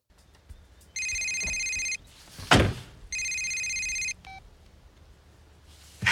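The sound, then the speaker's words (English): A phone rings twice inside a man's car parked in a suburb, in steady electronic bursts of about a second each, separated by a short pause with a dull thump in between. No one speaks. “He gets a call from Elliot, or he thinks it's Elliot, on his phone, and then he answers the phone”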